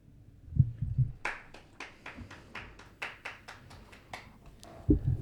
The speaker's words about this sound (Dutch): Bedankt om mee te klappen